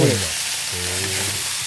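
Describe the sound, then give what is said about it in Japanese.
Sake is poured into a hot frying pan of lotus root and garlic scapes, sending up a loud, steady sizzle and hiss as the liquid turns to steam. The sound fills the whole moment, with a faint low hum underneath. “この一気に水分を加えることで、はい、あの水分が蒸発してフライパンの中にこう蒸気が滞留するんですけど、はい、それによってちょっと固めのレンコンだったりだとか、はい、こうニンニクの芽がこう蒸されながら火が通っていくので”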